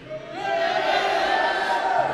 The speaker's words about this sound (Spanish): Eh, les voy a adelantar poquito, pero dice que hay una manera de alabar a Dios es con gritos. Alabar a Dios. Entonces cuando usted dice, gloria a Dios, alaba a Dios. A ver quién puede dar un grito fuerte al Señor.